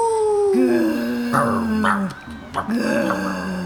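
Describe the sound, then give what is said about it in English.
A person imitates a dog, voicing a long, sliding howl followed by a few short, yelping barks, loud with no other sounds around it. “Woof, woof, ow.”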